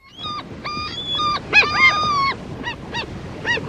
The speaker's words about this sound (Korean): 음, 무슨 소리 같아? 이게 갈매기들 울음소리입니다. 갈매기 소리예요. 네. 어, 무슨 뭐, 그, 고양이나 뭐, 네? 강아지 소리 같은 느낌도 드는데 갈매기 소리입니다.